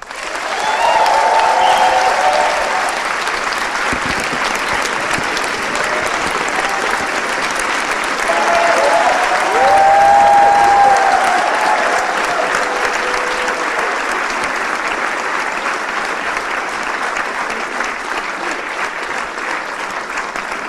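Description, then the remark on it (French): A large audience applauds loudly and steadily for about twenty seconds to welcome Martin Scorsese on stage, a dense continuous wash of clapping with occasional cheers rising within it, full throughout. “reprendre son souffle pour faire un bel accueil à Monsieur Martin Scorsese.”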